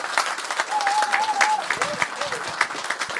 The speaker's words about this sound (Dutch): Dat mag wel een applaus hebben.